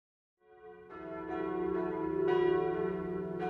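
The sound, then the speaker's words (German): Church bells in Nuremberg ring out marking the end of the free imperial city in 1806, in overlapping peals, each new strike layering onto a long sustained hum, building steadily in loudness with no voices present. “Glocken und Kanonen begleiten das Ende der freien Reichsstadt Nürnberg.”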